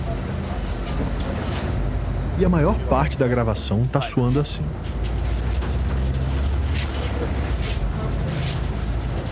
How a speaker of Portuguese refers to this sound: E o ar-condicionado começou a dar uma refrescada. Mas ao mesmo tempo, a gente sacou logo que o barulho do ar só ia piorar o combo do barulho do motor com as péssimas condições de conservação da carcaça do ônibus.